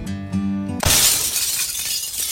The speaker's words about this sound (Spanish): Tumbó el jarrón favorito de su mamá. Se escuchó el estruendo. La niña quedó paralizada del miedo viendo todas las piezas rotas en el suelo.